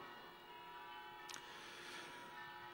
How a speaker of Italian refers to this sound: Eh, come al solito le campane, quando si parla male del cristianesimo, suonano le campane.